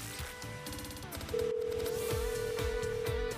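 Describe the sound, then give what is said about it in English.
A telephone places a call: brief dialing tones, then a steady, loud phone tone holds for the last two seconds, all over a busy music bed with a thumping beat. “So we're going to call her up.”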